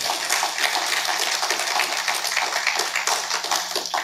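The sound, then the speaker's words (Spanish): An audience applauding the Lord, a dense, steady wash of many hands clapping together that holds at a strong, even level for about four seconds with no voices standing out. “Entonces, hermanos, déle ese fuerte aplauso al Señor.”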